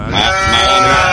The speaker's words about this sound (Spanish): ponme la cabra de Goku, la cabra de Goku, papi, la cabra de Coscu